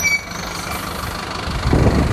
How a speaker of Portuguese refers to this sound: Ah, eu acho que esse é meu ônibus, eu acho que esse aqui passa na rodoviária.